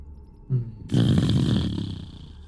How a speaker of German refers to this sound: Es wird vom westlichen Fenster aus plötzlich, wird der Raum so ein bisschen erleuchtet. Ein ganz helles Licht blitzt auf und ihr hört Donner direkt dahinter. Aus Westen.